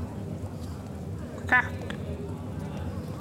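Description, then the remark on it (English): A person briefly imitates a chicken named Feather with a single short, nasal cluck-like squawk midway through, fairly loud over a steady low background rumble. “Uh, your chicken uh, feather sort of gets up next to your ear and says,”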